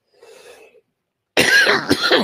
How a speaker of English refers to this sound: Take a break, everybody. I'm gonna fi- figure this cough out.